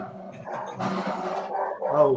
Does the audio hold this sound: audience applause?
no